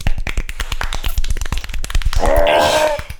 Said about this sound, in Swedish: Ja, men en liten, liten golfapplåd till Hazelight kanske? Eller? Ska vi göra det? Grattis!